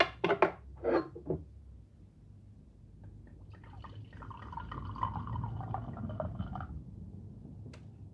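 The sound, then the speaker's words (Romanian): A few quick glassy clinks, then white wine pours steadily into a glass for about three seconds, the gurgle moderately loud, with no one talking. “ți-am pus ție tot vinul, că eu am băut o bere mai devreme cu un prieten, așa că o țin pe bere.”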